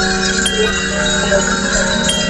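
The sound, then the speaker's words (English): Many bells, including a doorbell, are rung together for the Olympics in a dense, continuous clangor, loud, their overlapping tones forming a steady shimmering wash with no pauses. “Ring your bells for the Olympics!”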